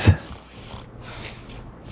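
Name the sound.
person snoring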